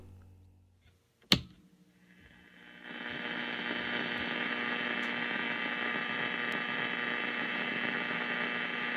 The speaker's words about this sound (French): Et maintenant, je vais passer à la radio qui fait un peu de bruit.